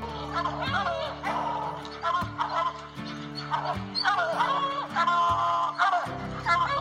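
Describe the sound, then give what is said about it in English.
A hunting dog barks repeatedly in short bursts over steady background music, the barks fairly loud, spaced irregularly through the passage with no talking. “Good dog, get that bird!”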